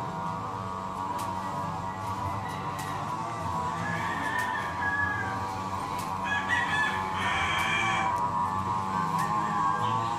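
A dense, steady chorus of chickens clucking, with rooster crows rising out of the mix now and then, fairly loud and continuous throughout, with no talking.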